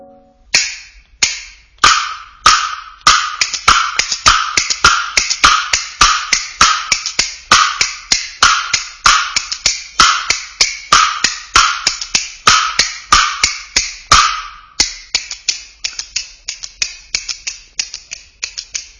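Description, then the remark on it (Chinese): Sharp, bright bamboo clapper (kuaiban) clacks in a brisk, steady rhythm, with quick doubled strokes and rapid flurries, loud and crisp with no voice over them, from Gao Fengshan's kuaiban storytelling performance 'Chuang Wang Zhan Tangdi'. “首先要来听到的是高凤山先生表演的快板书《闯王斩堂弟》。”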